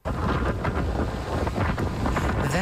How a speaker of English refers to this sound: is the wind whipping as Tropical Storm Fiona made landfall, dashing homes into the ocean, destroying property, and knocking out power.